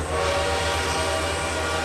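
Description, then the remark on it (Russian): A steam locomotive horn, sounded again by the driver, holds one sustained tone over the dense rumble and clatter of wheels of a very long passing train with many cars, beside the entrance of an apartment building, with no voices. “Машинист еще раз дал гудок,”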